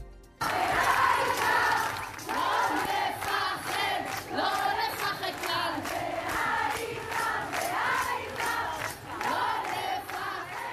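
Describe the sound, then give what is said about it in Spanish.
A large crowd at a teachers' protest in Tel Aviv, Israel, sings the chant "Lo principal es en absoluto no temer" in unison, accompanying teachers' union leader Yafa Ben David. A loud, steady melodic swell of many voices with rhythmic rises and falls continues throughout with no break. “Fue la gran hora también de Yafa Ben David, líder del gremio docente, a la que acompañaban con el cántico de Lo principal es en absoluto no temer.”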